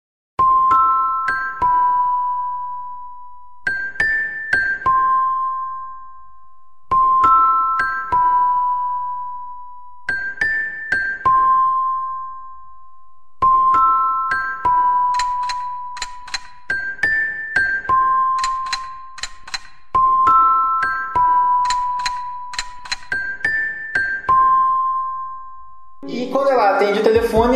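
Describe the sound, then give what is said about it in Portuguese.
An eerie mobile phone ringtone from a film, heard as a character's phone receives a call: a short electronic melody of bell-like notes repeating about eight times in a steady loop, fairly loud, until a voice breaks in briefly at the very end. “Uh, tem um toque tenebroso no celular da, pessoa, recebe uma chamada com um toque que não é o do celular que não dela, é o toque dela.”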